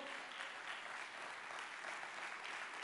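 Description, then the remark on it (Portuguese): Sustained applause from a church audience applauding the Lord, a dense steady wash of many hands clapping at an even loudness throughout, with no voices standing out. “Você pode dar um glória a Deus e aplaudir ao Senhor.”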